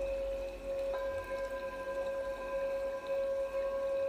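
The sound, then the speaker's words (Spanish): Steady flowing water murmurs continuously beneath sustained, humming musical tones, with a soft, even texture and no one speaking. “Escucha cómo fluye el agua, todo está creado a través del agua.”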